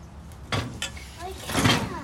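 A chair is dragged across the floor and pulled up to a table, with a few thumps and a short squeaky scrape before a longer, louder scraping shove at the end.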